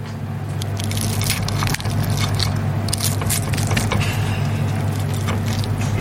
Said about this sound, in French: tu veux goûter Vas-y, goûte, goûte ta pomme de terre. non, déjà, on va faire un test sonore.